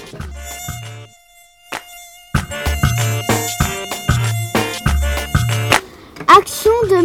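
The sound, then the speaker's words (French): Mosquitoes whine with a loud, high-pitched buzz that swells and fades, layered over a steady pulsing rhythm of low thumps for several seconds, with no one speaking. “Euh, une colonisation de moustiques, c'est euh, plein de moustiques.”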